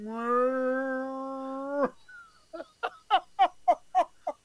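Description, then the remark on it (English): A person lets out a steady, drawn-out moan for nearly two seconds, imitating a distressed prize cow as people try to move it. It then breaks into a quick series of about seven short, rhythmic bursts of laughter. “They try to move it, and the cow's like.”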